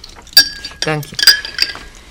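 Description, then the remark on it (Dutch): Drinking glasses clink and chime as drinks are served, two bright ringing taps with lingering tones, while a voice speaks briefly between them. “Hier zijn de drankjes.”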